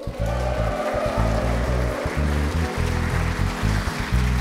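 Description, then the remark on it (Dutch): An enthusiastic audience at the NIMA Marketing Day cheers and applauds steadily, a dense, continuous wash of clapping and voices that holds at a fairly loud level for several seconds without letting up. “En dat doen we dit keer niet vanuit de BNR Studio, maar voor een super enthousiast publiek bij de NIMA Marketing Day. Laat je allemaal horen.”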